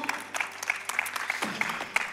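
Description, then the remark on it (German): Audience applause, a dense patter of many hands clapping steadily at moderate loudness, with no voices over it. “Applaus zusammen, come on.”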